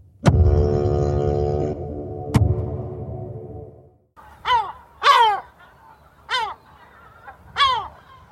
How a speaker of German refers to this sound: Die durchdringenden Schreie einiger Möwen rissen mich heute aus einem tiefen Schlaf. Sie klangen so seltsam, als würden sie über mich lachen.